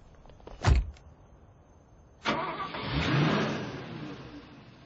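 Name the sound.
car engine starting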